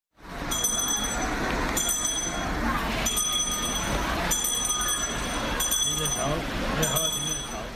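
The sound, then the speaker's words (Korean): A Salvation Army charity kettle handbell rings in bright, clanging strokes at a steady pace of roughly one per second. It rings at a December street fundraising collection, over a constant wash of busy street noise and crowd murmur. “연말 연시면 어김없이 들을 수 있는 소리 바로 사랑의 종소리입니다.”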